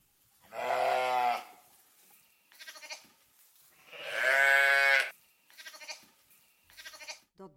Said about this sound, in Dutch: De lammetjes ruiken hun moeder en ze kunnen heel hard blaten, zoals je wel hoort.